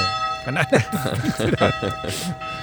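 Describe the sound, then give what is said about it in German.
Church bells of a Protestant church belonging to the Markuskirche ring steadily at quarter past eleven, their sustained tones droning throughout while a person talks over them. “die Glockentaktik habe ich noch nicht so ganz verstanden”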